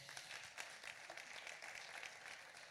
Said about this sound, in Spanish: Uf, buenísima pregunta. Un aplauso, por favor.